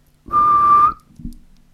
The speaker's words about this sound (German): Drei Arten zu pfeifen.